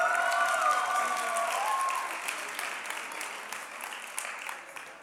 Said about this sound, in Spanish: Acá tenemos a los actores. Un aplauso a los actores, por favor.